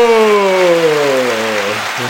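Loud, steady applause crackles throughout, with a sustained tone sliding gradually downward over it before fading near the end.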